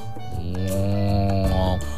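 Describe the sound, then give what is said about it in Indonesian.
A single cow moos as it comes out of its barn on a farm, low and drawn out for over a second, loud, with a slight rise in pitch near the end and nothing else around it. “Tak ketinggalan tadi Pak Sapi juga keluar dari kandangnya.”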